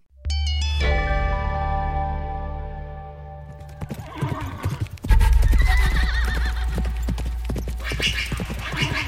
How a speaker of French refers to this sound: Sur son cheval noir, Lady Esther Stanhope galope à travers le désert.